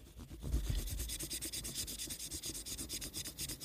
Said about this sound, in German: Ach, hier ist sogar so ein kleines Putztuch dabei. Alles ah, geil. Warte, ich mach ein bisschen ASMR kurz beim Putzen.